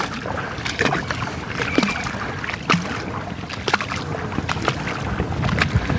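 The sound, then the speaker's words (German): A person wades through shallow sea water at a beach at midday: sloshing, splashing water churns steadily, with repeated swishes and splashes of legs pushing through the water over a constant watery hiss. No one speaks. “Stimmung ist gut, Familie sitzt in Strandkörben und der Verfasser dieses Podcasts wartet durch das Meer.”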